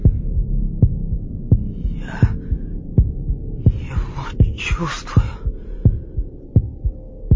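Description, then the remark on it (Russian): A steady heartbeat thumps in low, regular pulses, about one every three-quarters of a second, with a soft hum beneath and a brief whispered word partway through. “Оно стучит.”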